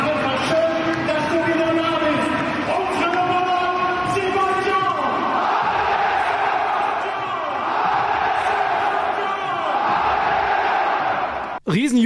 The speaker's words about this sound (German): Jubel bei der Einwechslung von Sebastian Aller. Kriegt man ein bisschen Gänsehaut, auch vorm Fernseher, ne?